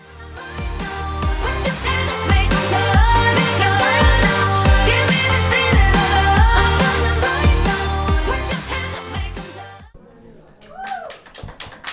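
A loud, up-tempo pop song with a driving beat and layered vocals plays for most of the stretch, then cuts off abruptly, leaving faint, scattered sounds at the end.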